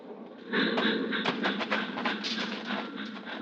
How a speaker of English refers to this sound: The train rolls by, slowing, and the crossing bell warns that death is here.